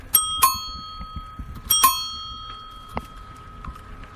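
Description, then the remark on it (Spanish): A bright bell rings in front of a church in two quick double strikes about a second and a half apart, its clear tone lingering between them over a low background rumble, with no talking. “suene la campana, ¿verdad?”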